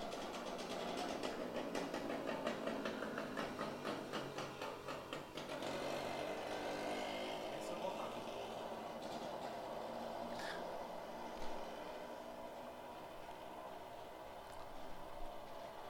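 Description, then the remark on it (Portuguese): A sugarcane cutter's engine runs steadily, a loud continuous mechanical drone with a rapid rhythmic chugging in the first few seconds, then a smoother, sustained roar with no voices. “Isso não é uma moto, isso é um cortador de cana.”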